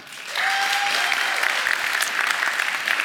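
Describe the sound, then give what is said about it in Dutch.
An audience breaks into steady applause for the participants of a youth debate, many hands clapping in a dense, continuous patter that starts abruptly and holds at a fairly loud level throughout, with a brief whistle-like tone early on. “Dus eh, geef ze een applausje.”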